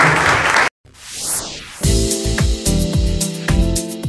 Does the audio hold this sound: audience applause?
yes